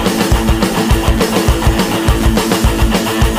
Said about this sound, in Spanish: La guitarra suena así.